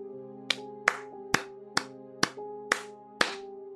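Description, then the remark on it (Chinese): Seven sharp, slow hand claps of unknown source land at a steady, unhurried pace over a low, sustained droning tone, giving the clapping an eerie, unsettling feel. No one speaks. “不知从哪传来的拍手声。”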